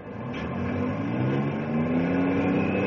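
A logging truck carrying a load of logs to market revs and pulls away, its low growl rising steadily in pitch as it accelerates. The sound stays loud throughout, with no voices.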